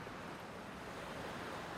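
Steady, soft rush of surf and wind on an empty beach, an even wash of noise with no distinct wave breaks and no voices.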